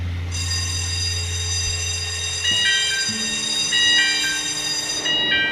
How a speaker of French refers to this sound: Une sirène avertit que l'ascenseur en métal, brinque ballant, va se mettre en marche pour descendre dans les profondeurs de la Terre.